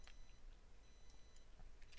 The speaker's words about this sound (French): il y a une autre alerte. Il y a à nouveau, il y a nouveau des petits bip bip